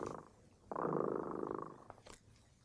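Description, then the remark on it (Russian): A cat purrs steadily for about a second, a rumbling drone that starts abruptly and fades out, with no talking over it. “Слышите, кот Ремота запел свою песенку.”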